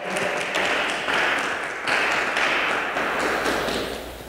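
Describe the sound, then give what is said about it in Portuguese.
A church audience applauds in worship of God, many hands clapping in a dense, continuous wash of sharp claps that swells in slight waves, with no voices standing out. “Vamos aplaudir esse Deus maravilhoso?”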